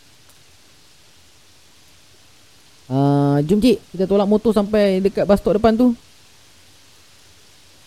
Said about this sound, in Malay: Tanpa disangka-sangka. Angin tak ada. Ribut tak ada. Hujan mula turun.